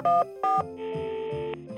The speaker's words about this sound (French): Maurice saisit le téléphone et composa le premier numéro